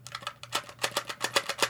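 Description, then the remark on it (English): Gel pills, stuck together from a hot day, rattle and tap out of a plastic bottle in a quick, uneven series of light clicks, growing a little louder and more regular, with a faint steady hum underneath. “I'm gonna shuffle this out.”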